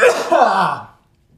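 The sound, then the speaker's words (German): A single loud sneeze bursts out and fades within about a second, leaving near silence afterward. “Da niese ich sogar vor Spannung.”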